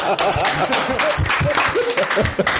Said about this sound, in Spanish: Aplauso.